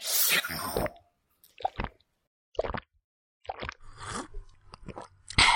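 Wet mouth sounds of sipping and smacking nectar from a flower come in several short, squelchy bursts separated by brief silences, with no talking.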